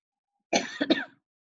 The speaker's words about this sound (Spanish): Voy a parar tantito para toser.